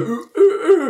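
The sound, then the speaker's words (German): A person mimics an owl with a few short, breathy hoots, fairly loud, with a brief pause between the first hoot and the rest. “Ja, äh, gut, nachgemacht. Ich muss jetzt gerade ganz ehrlich sagen, da ist eine Eule ja.”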